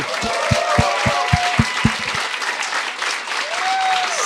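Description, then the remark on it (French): A crowd applauds the show's guests Julien Corriveau and Jean-François Provençal in a steady, dense wash of noise, with a few whoops and cheers rising above it early on and a voice calling out near the end. “J'aimerais ça qu'on donne une bonne main d'applaudissement à Julien Corriveau et Jean-François Provençal.”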